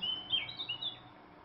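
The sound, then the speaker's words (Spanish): Small birds chirp and trill in quick, high-pitched bursts from the trees along a path, several overlapping calls against a soft outdoor background hiss. “También hay pequeños pájaros que no identifico, pero que me alegran con sus cantos desde los árboles del camino.”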